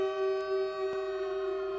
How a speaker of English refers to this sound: don't have to come in with our own canned air raid sirens from during the Cold War. We got real air raid sirens in 2022